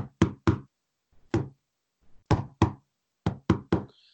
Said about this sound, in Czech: já vím, kde ten člověk jako funguje, takže tam přijdu, eh, zaklepu kódově na dveře, tři, dva, tři, jedna, takový to.